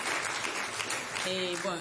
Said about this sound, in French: Et ça, vraiment, je demande vos acclamations et votre esprit